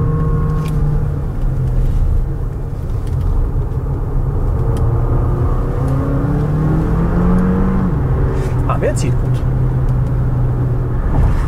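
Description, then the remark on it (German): A Compass plug-in hybrid SUV's engine drones loudly as the engine is pushed, its pitch climbing and shifting as it revs under load, then settling back into a steady hum, with no voices over it. “Aber natürlich ist es so, wie bei vielen Plug-in-Hybriden, wenn man den Motor fordert, dann wird er auch gern mal laut.”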